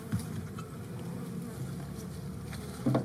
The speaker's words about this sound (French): le son des abeilles domestiques, c'est un champ de recherche à part entière.